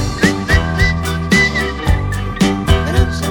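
A whistled tune carries a short melody in brief, bright phrases over a rhythmic musical backing with steady beats and low bass notes, fairly loud.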